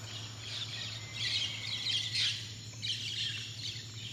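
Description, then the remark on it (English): Soft birdsong ambience, bird sounds adjusted by Ms. Casey in the wellness room, with overlapping chirps and tweets drifting steadily throughout over a constant low electrical hum; no one speaks. “In the wellness room, Ms. Casey is able to adjust bird sounds and ambient music.”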